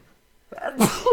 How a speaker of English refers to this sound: About to sneeze.